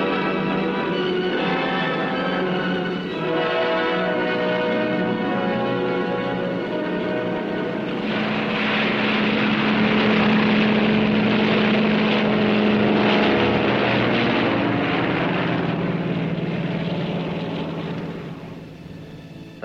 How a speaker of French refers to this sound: Dépêchez-vous, l'avion va partir.